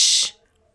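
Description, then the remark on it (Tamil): A single short, sharp shushing hiss, "ush", loud, made by the character Vandiyathevan in reply, imitating the way the girl said it, lasting a fraction of a second before cutting off into near silence. “அதுக்கு பதிலுக்கு வந்தியத்தேவன் முதல்ல அவள் சொன்ன மாதிரியே உஷ்”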